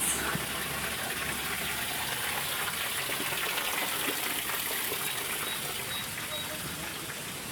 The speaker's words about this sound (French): donc là, par exemple, on va passer une petite cascade sous une rocaille.